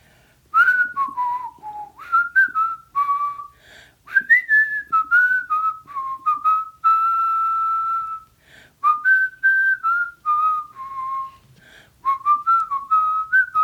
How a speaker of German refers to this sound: Wenn das jetzt fünf Minuten nur Gepfeife ist, wäre das so geil. Ich lieb's jetzt schon.